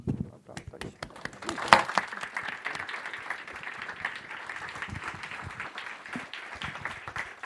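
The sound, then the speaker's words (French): An audience applauds steadily for the Louise Michel library, thanking it for hosting them. A dense wash of many hands clapping stays fairly even throughout, with a faint voice briefly heard at the start. “Allez, encore un applaudissement pour eux.”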